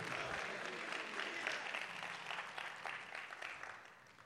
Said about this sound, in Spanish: Come on, Dale un aplauso fuerte.